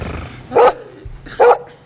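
Two loud, sharp dog barks, about a second apart, rising clearly above a quiet background.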